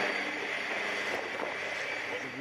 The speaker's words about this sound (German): Durch den Bosporus in Istanbul läuft ein russisches U-Boot ins Schwarze Meer ein.